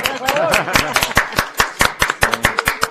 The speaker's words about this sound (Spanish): Un aplauso,